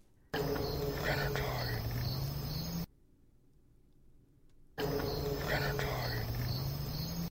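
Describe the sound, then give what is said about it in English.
Steady crickets chirp in the background beneath faint, breathy whispering, cutting out briefly into near silence before returning at the same level. “You can also hear crickets in the back.”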